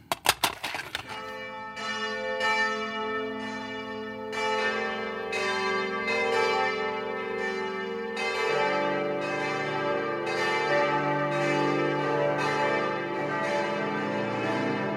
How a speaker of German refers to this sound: Die Glocken der Stuttgarter Stiftskirche läuten zu einem ganz besonderen Gottesdienst,